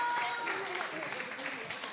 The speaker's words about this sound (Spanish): Muchas gracias. ¡Un fuerte aplauso! Gracias, padrinos.